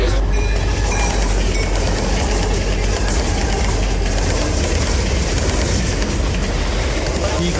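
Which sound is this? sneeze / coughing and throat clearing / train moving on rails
train moving on rails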